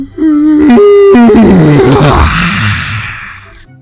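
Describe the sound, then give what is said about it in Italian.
A person mimics the huge, drawn-out yawn of an ogre, starting with a strained pitched vocal stretch and dropping into a loud, breathy groaning exhale that fades out slowly. “Attenzione, l'orco sta per sbadigliare tutti ai ripari!”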